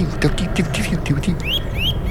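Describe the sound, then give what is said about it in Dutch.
A Eurasian nuthatch calls: a quick run of sharp, repeated notes, then several clear rising whistles, with faint low voices murmuring underneath. “Dat is een boomklever.”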